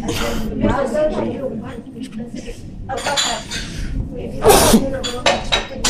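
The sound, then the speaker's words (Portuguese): Two sharp sneezes from one person burst out about a second apart, loud and breathy, with people talking around them. “Bem, que posas gigante só para eu espirrar duas vezes.”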